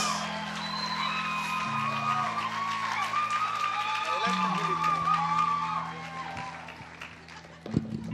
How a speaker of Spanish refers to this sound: Le damos un aplauso a Dios por la vida de Ángel López.